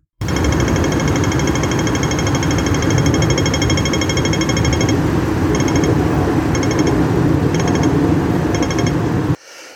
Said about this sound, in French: Eh bien oui, vous avez bien deviné, c'est Hong Kong, où chaque carrefour égrène pour vous ce son, destiné à faire alterner les moments où passer, ou se presser, ou bien attendre face à la meute motorisée furieuse des voitures et des bus,